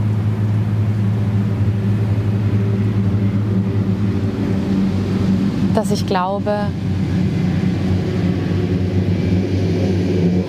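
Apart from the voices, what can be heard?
car driving past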